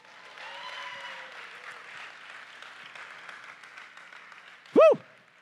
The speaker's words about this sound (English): Come on, Morning Star, give a big clap offering to Jesus this morning.